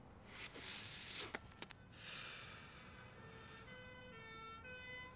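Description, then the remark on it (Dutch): Two emergency vehicle sirens wail, their tones overlapping and shifting over steady road traffic noise, with a few sharp knocks early on and no one talking. “Maar ik hoor twee sirenes”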